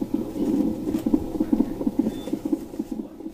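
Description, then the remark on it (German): A fetal heartbeat on a monitor pulses in a fast, steady rhythm, a muffled whooshing thump repeating about twice a second at moderate volume over a low background hiss, with no voices. The unborn child is being monitored after surgery in the womb on its open back. “Schön regelmäßig sind die Herztöne zu hören.”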